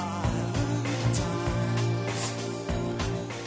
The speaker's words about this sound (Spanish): Este es el sonido de … con ….